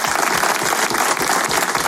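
Steady audience applause as a guest joins, a dense wash of many hands clapping at a consistently loud level throughout, with no voices standing out above it.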